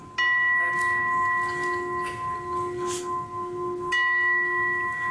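A gong is struck twice, a few seconds apart, each hit ringing out with a clear, sustained metallic tone that lingers before the second strike starts it afresh.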